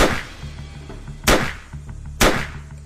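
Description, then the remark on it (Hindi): Three loud, sharp gunshots, depicting Nanavati firing three shots into Mr. Ahuja in a bedroom, ring out about a second apart, each cracking sharply and trailing off in a short echo over a low steady hum. “जी हाँ ही fired three shots into him, and Mr. Ahuja died instantly.”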